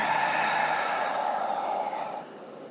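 A long, steady collective exhale from many people breathing out together in a room during a group practice session, a broad airy whoosh that holds for about two seconds before tapering off. Nobody speaks.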